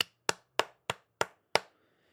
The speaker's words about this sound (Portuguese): Os lives do Bruno Nogueira que, palmas,